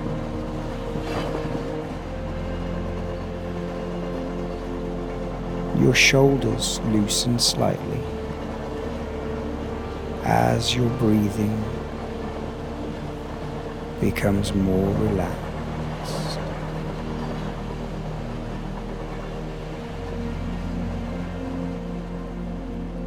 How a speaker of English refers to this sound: hear the subtle rumble of the train.